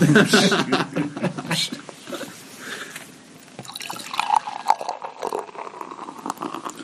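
Beer gurgles and splashes as it's poured into a glass, a steady liquid stream with fizzing bubbles, while someone chuckles softly.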